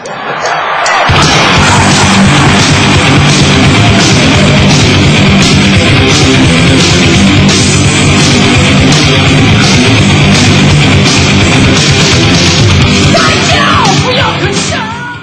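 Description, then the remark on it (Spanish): A loud, chaotic Christian rock recording of crashing, distorted noise with a pounding, steady beat and what sound like yelled vocals, starting abruptly after a brief silence and staying dense and relentless throughout. “Parece el metro. Esa es una grabación cristiana.”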